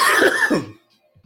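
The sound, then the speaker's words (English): A couple of harsh, raspy coughs in quick succession, loud, followed by near silence with faint low rumbles at the end. No talking. “This tea is not doing shit for my cough.”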